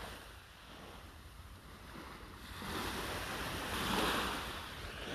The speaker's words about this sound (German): Ähm, ja, im Hintergrund hört ihr das Meer. Wartet.